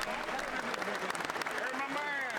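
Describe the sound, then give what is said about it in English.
Steady, dense applause from a large crowd in a chamber, coming from both sides, as everyone claps for President Trump at his speech. It fills the whole stretch, a continuous crackle of many hands clapping at once, with indistinct voices rising over it toward the end. “That's why tons of applause, of course, coming from both sides.”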